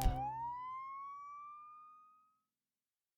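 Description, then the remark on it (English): A single police siren, heading toward a camp, wails upward in pitch, holds as a steady tone, then gradually fades away over a couple of seconds, leaving near silence, with no voices. “As the life was leaving her body, the last thing that Jenny heard was the sound of sirens heading toward the camp.”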